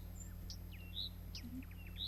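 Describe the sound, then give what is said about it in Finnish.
A Blyth's reed warbler sings a quick, varied run of high whistles, chirps and short downward-slurred notes over a steady low hum, with no talking. “Viitakerttonen viheltelee”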